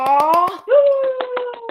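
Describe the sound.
Two bursts of about four quick, sharp hand claps each, evenly paced and fairly loud, sounding over a sustained, drawn-out voice.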